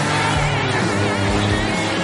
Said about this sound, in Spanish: Ahí vemos cómo se mueve el DeLorean. No tiene el sonido característico, eso es un pero, pero oye, se ve muy bien.